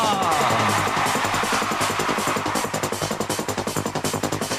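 A loud, dense techno track with a driving, rapid beat; the pounding kicks grow more prominent and punchy toward the end. No voices are heard.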